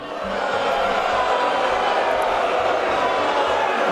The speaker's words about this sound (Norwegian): Da han nevnte at noen republikanere har foreslått å kutte i sosialstønad og Medicare, den offentlige helseforsikringsordningen for eldre, ble han derimot møtt med buing.